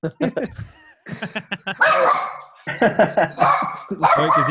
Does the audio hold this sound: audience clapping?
no